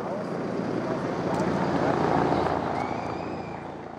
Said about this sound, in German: Und über den Dächern noch immer ein kreisender Hubschrauber.